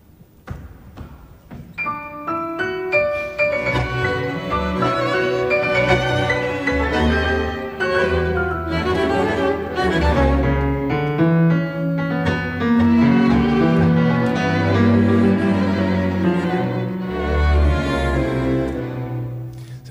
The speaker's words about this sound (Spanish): Empieza tocando en octavas con dos manos en el registro agudo y la segunda parte del solo pasa al registro medio grave tocando con una única mano. Bien típico del estilo troiliano.